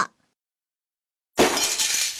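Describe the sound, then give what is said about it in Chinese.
A bowl shatters with a sudden loud crash, breaking into a bright, crackling spray of ceramic shards that rattle on for about a second. No one speaks; a brief faint sound precedes a silent gap. “哎呀，我的碗！打碎碗要赔”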